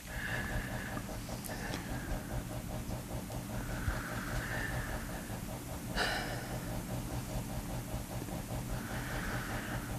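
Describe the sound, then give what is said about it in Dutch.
Quiet crying with shaky, sobbing breaths: ragged gasping inhales and wavering exhales repeat steadily for several seconds, with no words spoken. “Je moest even hoesten en je moet even huilen.”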